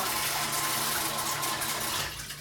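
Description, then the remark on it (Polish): Steady running water splashes as strawberries are rinsed in a sieve with large mesh holes, letting the dirt wash away, a continuous broad hiss that eases slightly toward the end. No one speaks. “Najlepiej jest pukać oczywiście na siwku z dużymi oczkami, wtedy cały brud swobodnie spływa.”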